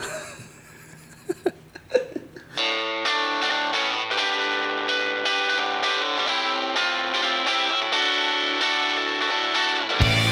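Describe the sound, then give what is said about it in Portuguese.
A few seconds of laughter and chuckling give way to the opening theme music of the Netflix series Ozark: a loud, steady, distorted instrumental with sustained tones and a pulsing rhythm that carries on to the end. “solta a música da abertura.”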